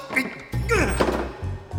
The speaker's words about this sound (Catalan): Jo què sabia que obrint la porta d'una colpa catapultaria